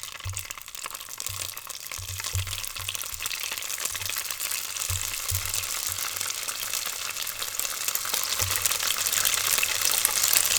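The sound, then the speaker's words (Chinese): Gluten sausage fries over medium heat in a pan until golden on the surface: a steady, dense crackling hiss that grows slightly louder toward the end, with faint low thumps scattered throughout and no voices. “开中火煎面肠，煎到表面金黄。”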